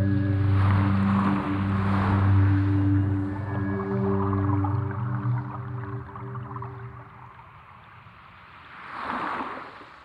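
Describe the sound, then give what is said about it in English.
A blue whale's song underwater: a deep, sustained droning moan with steady layered tones for about eight seconds over constant watery hiss, then fading as a brief swell of water noise rises. “And that's strange because I've been searching for the song of one of the largest and loudest animals that has ever lived the blue whale.”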